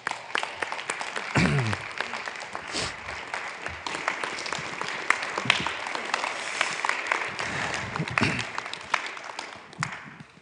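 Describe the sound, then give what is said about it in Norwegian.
An audience breaks into steady applause for a female teacher as she comes forward, lasting the whole stretch, a dense patter of many hands clapping at an even level, with brief voices and cheers rising through it now and then. “dere må klappe for henne når hun kommer fram.”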